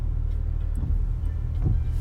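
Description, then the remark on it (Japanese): A steady low engine hum from an Alfa Romeo car drones throughout, a dense rumble with faint rises in loudness now and then, and no voices. “右のアルファロメオのこのエンジンがブーンっていう音とかリアルです”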